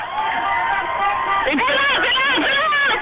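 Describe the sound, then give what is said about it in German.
A loud, dense crowd of Greek people in a procession on the Kurfürstendamm in Berlin, people on foot in front and hundreds of cars behind, many overlapping voices shouting and chattering in a continuous hubbub that swells slightly halfway through and stays busy to the end. “ich bin hier auf dem Kudamm irgendwie so Ecke, ich weiß nicht, vorher war eine Ecke Leniner Platz, hier so eine Art Prozession. Also zu vorne, vorne ein paar Leute zu Fuß, die sind echt schnell, hinten Autos, hunderte.”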